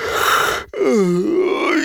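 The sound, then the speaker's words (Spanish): A voice performs an exaggerated, drawn-out yawn, breathing out through the mouth: a breathy exhale, a short pause, then a loud sliding groan-like vocalization that dips and rises in pitch, alone without speech. “Y estás así, bostezando.”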